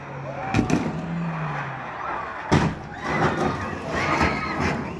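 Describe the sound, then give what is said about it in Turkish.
A car skids on a snow-covered road on Nişantaşı Street in Atakum, Samsun, after its driver braked while going downhill, amid steady rushing noise, with a low engine drone early on and a couple of sharp thuds as it is dragged metres, hits the curb and overturns. “Nişantaşı Caddesi'nde yokuş aşağı inen bir sürücü frene basınca kaydı karla kaplı yolda.”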